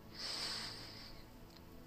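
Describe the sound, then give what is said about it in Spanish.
A slow, deep inhale drawn through the nose during a guided relaxation breathing exercise, a soft airy hiss lasting over a second, quiet with no talking. “Inhalo.”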